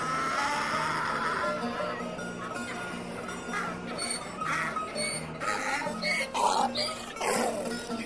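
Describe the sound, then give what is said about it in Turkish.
A donkey loaded with two barrels of pickles brays loudly in a street, a harsh, rasping bray repeated in uneven bursts over several seconds, with no one talking. “Tam turşu diye bağıracakken eşek”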